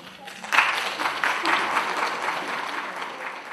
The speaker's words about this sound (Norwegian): Han mottar høflig applaus, guvernør Aleksandr Hotilainen i Karel nordvest i Russland, etter at han i Kulturpalasset har kunngjort for lærerne i Petrosavodsk at Russlands president Vladimir Putin har gitt dem en gave i form av en lønnsøkning.